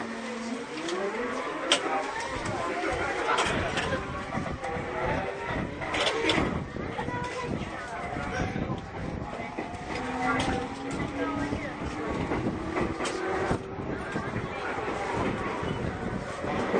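A JR 209 series electric commuter train running between Akihabara and Shinjuku, with a steady loud rumble and rattle under a whining motor tone that climbs gradually in pitch as the train picks up speed.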